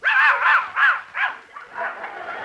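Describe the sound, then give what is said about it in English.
A dog barks inside a house in four quick, sharp yaps at a steady rhythm, followed by a rougher, continuous run of yelping, with no one talking. “He had to bring a dog in my house.”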